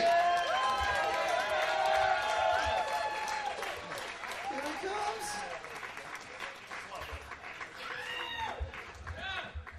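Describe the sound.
A comedy show crowd applauds and cheers loudly as Alex Jones is brought up to do a 10 minute set, with whoops and shouts rising over steady clapping that gradually tapers off, with a few voices calling out near the end.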